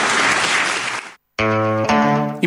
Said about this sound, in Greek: Υπόθηκαν λόγια βαριά χθε στην Κεντρική Επιτροπή, Πολιτική Επιτροπή. Χειροκροτούσαν και άλλοι από κάτω.